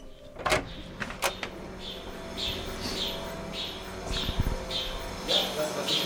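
A vacuum pump pulling the air out of a chamber to simulate the vacuum of space gives off a steady series of high, bird-like chirps about twice a second over a low mechanical hum, following a few sharp clunks at the start.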